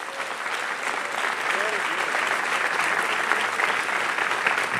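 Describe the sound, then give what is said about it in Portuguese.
An audience applauds loudly and steadily, a dense wash of clapping that holds its level for the full stretch, with faint voices and cheers mixed into the crowd noise. “Eu quero que você aplauda ele bem forte.”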